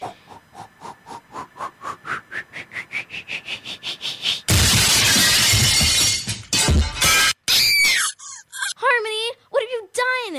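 A rising, pulsing whistle builds up before a loud crash of a ceramic vase shattering into pieces after a vinyl record is thrown at it like a frisbee, the record also destroyed, followed by brief squeaky, warbling vocal sounds.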